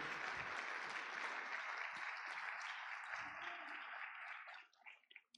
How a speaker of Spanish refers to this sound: Amén. ¿Por qué no le das un aplauso a Dios por esto?